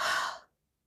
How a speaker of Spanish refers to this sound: Última, inhala lento, lento, profundo. Y exhala.